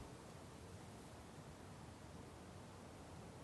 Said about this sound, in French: Celui-là, comment il s'appelle C'est un, vent dans les arbres nus.